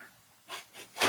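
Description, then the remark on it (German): A cat makes soft background noises: three short, breathy, hiss-like bursts that grow louder toward the end, with no talking. “Katze macht Hintergrundgeräusche, okay.”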